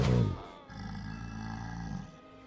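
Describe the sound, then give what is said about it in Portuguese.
A monstrous alligator-like creature roar effect as the creature bites hard and shakes a man from side to side: a sharp, loud opening blast, then a sustained, rumbling, gravelly growl that holds steady for over a second before cutting off. No one speaks. “Tá saindo bastante sangue, a criatura tá mordendo bastante, chacoalhando ele de um lado pro outro.”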